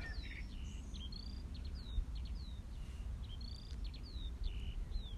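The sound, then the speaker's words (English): A skylark sings a continuous stream of high, rapid chirps and warbling trills over a steady low rumble of wind, heard next to a field on a ridge walk in open country. “Listening to a skylark.”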